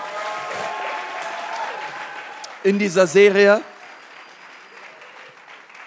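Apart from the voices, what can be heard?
audience applause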